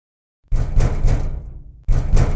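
A run of loud, rhythmic knocks on a door, each ringing out with an echoing tail that slowly fades, followed by a short gap and a fresh burst of knocking. The penguin Bugu is knocking door to door in the silent Amigo Village (阿米狗村), with no one home to answer.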